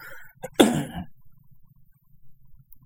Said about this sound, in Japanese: あと、まあちょっと今、食後なので、そのせいでなんかこう、あるんですよね。割となんか私は、なんか物を食べた後に咳き込むっていう、まあそれはあの別に苦しくて咳き込むじゃなくて、なんとなく出るっていう、そういうタイプの、なんていうか、体質なんですけども